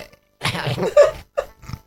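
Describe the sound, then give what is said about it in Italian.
A man burps: a long, loud, gurgling burp rolls out for nearly a second, followed by two short, softer guttural bursts, with no talking over it. “Ha ruttato il ah, maestro.”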